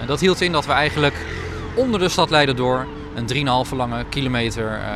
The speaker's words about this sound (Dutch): waar nu een hele drukke doorgaande weg op Maaiveld ligt, gewoon eh, dat eh, iedereen kan het geluid horen, u hoort het nu ook, dat we hier een veel mooiere, groene, rustige omgeving zouden creëren door al het autoverkeer de grond in te stoppen.